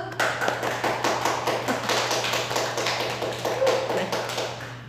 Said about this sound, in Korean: 박수!